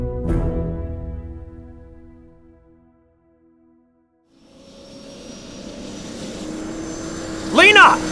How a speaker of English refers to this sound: Onto the chopper! And be quick about it!